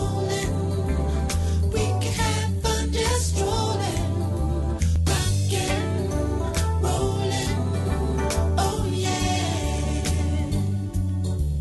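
A pop song plays at full volume with a steady bass-driven beat, layered synths and a male lead vocal carrying the melody, dense and continuous throughout.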